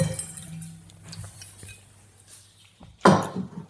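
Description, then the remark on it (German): Wine from a winery in Senheim trickles and gurgles softly into a glass as a person pours themselves another glass, then a bright glassy clink rings out near the end. No one speaks. “ich finde, darauf trinkt man nochmal Ja, äh, ich, ich würde nochmal von meinem kurz einen einschenken, weil ich ihn so gern habe.”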